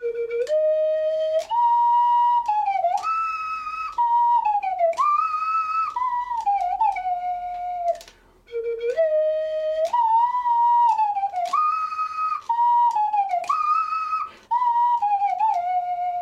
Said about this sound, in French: mis au point une sorte de réglette avec des encoches, une réglette qu'il fixe le long de la flûte et qui permet à la coulisse de se caler sur des encoches correspondant aux notes. C'est pas con du tout et ça rend l'instrument plus euh, domesticable.